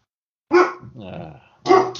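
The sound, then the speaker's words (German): A dog gives two loud, sharp barks about a second apart, with a lower, rougher growling sound rumbling in between. “Ja, der Hund sagt auch was dazu, sehr gut.”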